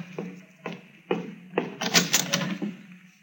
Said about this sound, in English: Open the door, will you, to the waiting room? Well, all right.